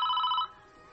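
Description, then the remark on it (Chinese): A phone rings once, a bright electronic tone with stacked harmonics lasting about half a second, then it cuts off and leaves a faint hum. It is an incoming call from Mo Xiaoyu. No one speaks. “而莫小鱼的电话也是适时而来。”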